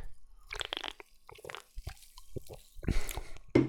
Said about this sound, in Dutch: Eerst even een slokje van de Pepsi Max Cherry.